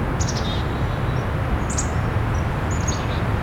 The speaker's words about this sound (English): Blue Jay call.